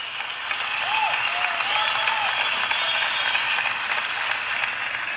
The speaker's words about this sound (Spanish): Muchas gracias, muchas gracias, muchas gracias por sus bellos aplausos. Muchas gracias por sus aplausos.